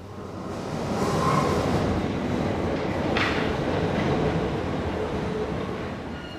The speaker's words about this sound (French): Ah, le métro arrive enfin. Je m'engouffre dans le wagon.